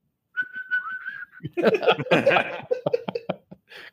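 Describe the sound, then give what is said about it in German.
A person whistles a single steady, slightly wavering note for about a second, clear, then breaks off into a burst of loud, breathy laughter. “Pfeifen wir denn rein?”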